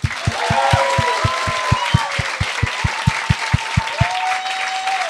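An audience applauds loudly, clapping in a steady rhythmic beat over a dense wash of hands, with whoops and a rising whistle-like cheer on top for about five seconds.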